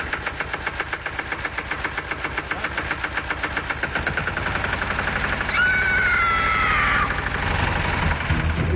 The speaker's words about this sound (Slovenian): Ja, kaj pa je to? Ja, kultivator.